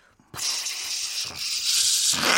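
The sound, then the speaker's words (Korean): A voice imitates steam leaking out the side of a pressure rice cooker while rice is cooking: after a brief pause, a loud, steady, breathy hiss starts abruptly and runs on for about two seconds, swelling slightly near the end. “흥미밥 하는데 압력 밥솥 증기가 옆으로 새는 거예요.”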